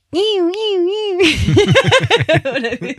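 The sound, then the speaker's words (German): A voice imitates the siren of a motorhome alarm system with a steady, wavering high wail for about a second, then breaks into a run of bouncy giggling laughter. “Ich wollte dich fragen, äh, weißt du eigentlich, wie die Sirene von Alarmanlage klingt?”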